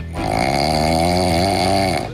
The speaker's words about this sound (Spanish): nos mostró que el hombre ronca por las noches como un camión